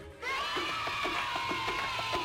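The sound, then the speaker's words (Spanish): A crowd of fans screaming loudly and continuously, high-pitched shrieks layered together in a sustained, intense wall of sound, with no one speaking. “Si los fans están cerca, todos gritan así.”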